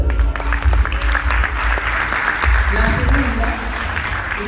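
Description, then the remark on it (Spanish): An audience breaks into sustained applause, a dense crackle of many hands clapping at steady loudness for several seconds, with a murmur of voices underneath. “Un fuerte aplauso.”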